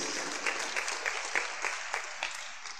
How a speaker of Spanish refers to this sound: Démosle otro fuerte aplauso.